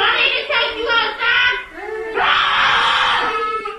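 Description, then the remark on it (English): Toddlers at Little Blessings Child Care and Learning Center in Hamilton, Mississippi, scream and wail in terror at a person in a Scream-movie mask, several high, strained cries pulsing close together, then a long sustained shriek, loud with no talking. “And the toddlers are terrified.”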